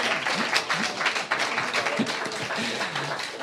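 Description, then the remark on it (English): A crowd applauds loudly and steadily, with dense overlapping claps running the whole time and a few voices cheering and calling out beneath them, welcoming a guest speaker to a society evening in London's East End. “Big cheer. Yay!”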